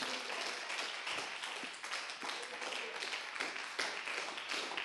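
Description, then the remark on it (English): A crowd claps steadily in sustained applause giving God praise, many hands overlapping into a dense, continuous wash of claps for several seconds without pause. “Come on and give God a hand praise.”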